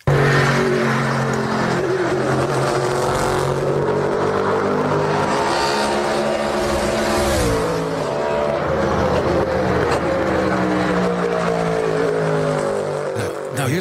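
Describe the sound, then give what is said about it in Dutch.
A Ford GT3 race car built for Le Mans revs loudly and continuously, its pitch rising and falling through gear changes as it drives on a circuit, with no voices over it. “een GT3 voor Le Mans zou komen. Nou, die is nu losgelaten op het circuit”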